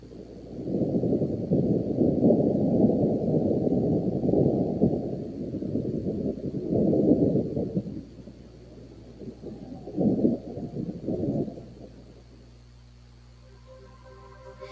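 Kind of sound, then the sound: nature, rain falling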